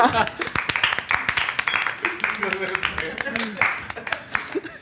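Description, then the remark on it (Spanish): A small group claps steadily for several seconds for a speaker's mother, dense overlapping hand claps at a brisk pace, with some voices and cheering mixed in underneath. “Ah, qué bonito aplauso, amigos.”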